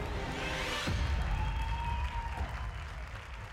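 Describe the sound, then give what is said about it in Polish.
A courtroom audience and journalists applaud steadily with scattered cheers after a death sentence is announced, a dense wash of clapping that stays fairly loud and even throughout, with a few whistling tones rising above it. “Ludzie bili brawo i wzajemnie sobie gratulowali.”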